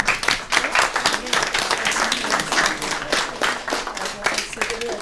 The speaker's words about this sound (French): Euh, on peut les applaudir.